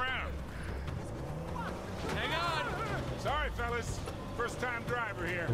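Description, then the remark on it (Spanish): A car engine revs and strains in repeated rising surges over a steady low rumble as the car gets stuck in mud. The engine is fairly loud, and voices call out over the noise. “se le está quedando el coche enganchado ahí en el barro.”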